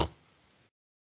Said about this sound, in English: Did you just snort like a pig? Where did you snort?